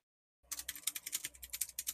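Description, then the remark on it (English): Rapid computer keyboard typing with a steady patter of light clicks after a brief silence, continuing busily to the end with no voices. “probably hear my keyboard typing.”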